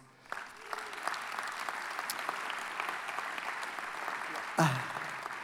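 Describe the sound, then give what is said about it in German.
An audience at ICF München applauds steadily for several seconds, a dense patter of many hands clapping at a fairly even level, with a brief louder burst near the end. “Applaus.”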